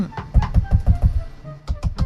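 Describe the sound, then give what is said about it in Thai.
Someone raps on a house door in a quick run of about eight solid knocks, pauses briefly, then knocks three more times. The living room is being swept during a holiday house-cleaning, and the knocker is the neighbour's child. No voices are heard. “ในห้องรับแขกนั้น ก็มีเสียงเคาะประตูดังขึ้น”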